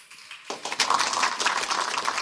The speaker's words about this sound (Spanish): Dale otro aplauso fuerte al rey.